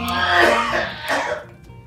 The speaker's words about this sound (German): der da hustet